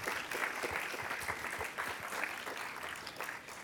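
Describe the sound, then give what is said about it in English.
A crowd applauds two panelists at a panel discussion, dense overlapping hand claps forming a continuous, fairly loud wash of noise that holds level for several seconds without voices. “So let's let's give a round of applause to both of our panelists.”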